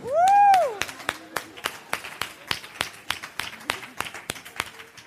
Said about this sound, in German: Dafür kriegt man Applaus. Das ist Super. toll.